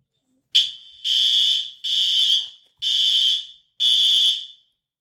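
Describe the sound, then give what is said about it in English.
A building's fire alarm blares in five loud, shrill, evenly spaced bursts, each lasting about half a second to a second, with brief gaps between them and no voices. “that is a, definitely a fire alarm.”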